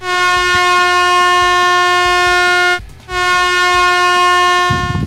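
A loud, blaring air horn sounds alone in two long sustained blasts, the first nearly three seconds, broken by a brief gap before the second.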